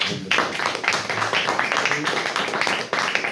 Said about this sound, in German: Ähm, ich würde sagen, Sie zwei haben einen Applaus verdient.